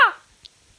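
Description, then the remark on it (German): A voice imitates a nuthatch call, a rolled-R "Ra!", with one short, sharp, bright burst that cuts off quickly, followed by near silence and a faint click. “ich zeige Ihnen jetzt, wie ein Kleiber klingt.”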